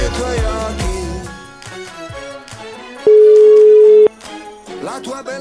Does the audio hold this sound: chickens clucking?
no